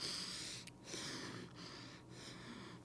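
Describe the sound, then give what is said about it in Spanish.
A person makes rapid, short sniffing breaths through the nose, imitating a rabbit's breathing as a breathing exercise for children, in quick bursts separated by brief pauses, fairly soft with no talking. “Entonces, o la respiración del conejito. En la respiración del conejito ponemos, podemos poner los dos dedos así o podemos ponerlo acá, dependiendo de los niños, lo que disfruten más.”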